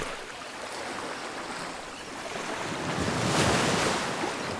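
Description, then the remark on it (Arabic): Steady ocean surf and wind roar out on open water, a broad continuous wash that swells louder toward the end, with no voices present. “سفينة القبطان فتحي كانت بعرض البحر وفجأة ضربت بجبل جليدي وما ظل غير القبطان فتحي وأبو السيم ضايعين في البحر”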